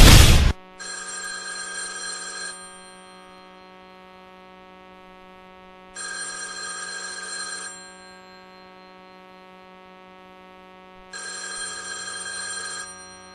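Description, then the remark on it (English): A telephone rings in three evenly spaced bursts, each a bright, jangling trill lasting under two seconds, separated by pauses filled with a low steady electrical hum. No one speaks. “It means you're another call closer to losing your home to foreclosure.”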